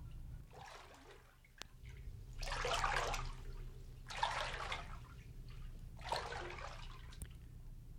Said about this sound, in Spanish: Era lindo mirarse en el río. El agua pasaba y la cara se quedaba allí.